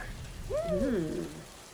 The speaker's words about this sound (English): You close the door. The rain becomes quieter outside.